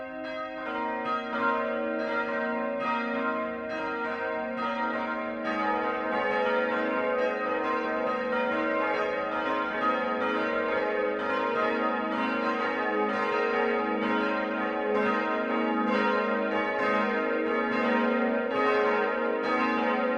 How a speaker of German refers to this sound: Im Füßner Satteldachturm läuten fünf Glocken.